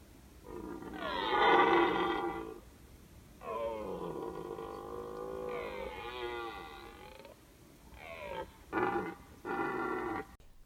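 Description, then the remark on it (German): A red deer stag roars repeatedly in the rut from a small woodland copse among fields, minutes after first shooting light, in summery temperatures: long harmonic bellows followed by a few shorter grunting calls, loud with no one speaking. “Dummerweise hatte sich der Hirsch, wie offensichtlich alle anderen in der Gegend auch, aber in eine Feldholzinsel zurückgezogen, aus der er nun fleißig meldete.”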